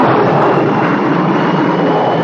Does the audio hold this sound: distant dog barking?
no